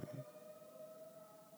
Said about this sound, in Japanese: 救急車ですねはいで まあこれ今今のねこの救急車の音がして救急車だなっっていうのはすごくあの僕の典型的な考え方なんですけどそれ以上は想像しないんですよね。